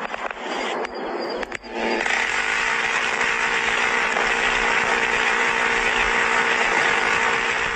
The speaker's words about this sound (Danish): Ja, det I kan høre her, det er simpelthen en, en, en, en, en mm. altså et, et, et maskingevær eller noget anti-luftværn eller noget, den slags, Præcis. som uh, simpelthen bare blæser skud ud øh, hvad hedder det nu, efter en flyver i luften.